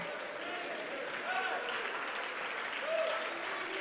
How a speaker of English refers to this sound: I wish you would stand to your feet and clap your hands and say, Where the word of the King is, there's power.